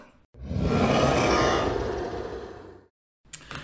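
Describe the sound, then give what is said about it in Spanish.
A person lets out one long, loud, rough growling bark in imitation of a dog, held for a couple of seconds, then breaks off into brief silence. “Eh creo que me está, estoy practicando mi ladrillo de perro y me está saliendo súper bien.”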